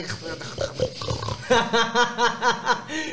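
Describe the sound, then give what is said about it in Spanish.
A person imitates a pig's snorting, first a rough throaty grunt, then a quick rhythmic string of about seven nasal snorts, fairly loud. “Imagínate, estás cagando y la trompa de un puerco”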